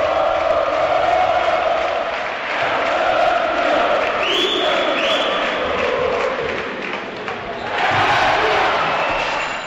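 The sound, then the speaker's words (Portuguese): A basketball arena crowd cheers loudly and continuously as São Paulo's Léo Mendel rallies the fans and reaches his 13th point of the game, a dense roar that dips briefly and swells again toward the end, with a couple of short high-pitched squeaks midway. “E a torcida vai junto.”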